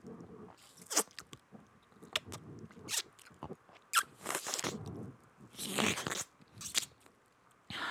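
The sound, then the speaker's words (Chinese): Wet sucking and smacking made by lips drawing air through the gap between a thumb and index finger pressed together, with the hand in a 'seven' sign, to imitate kissing: an irregular run of sharp kissy pops with a few longer, hissy slurps, and no talking. “对，呃，我可以教大家，就是你手指比七，比七完之后，把你的大拇指跟食指合并在一起，然后用你的嘴唇去吸那个缝隙。”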